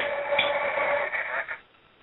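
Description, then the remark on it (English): A telephone is hung up: steady, tinny line noise with a couple of faint clicks cuts off abruptly, leaving near silence. No one speaks. “It's hung up.”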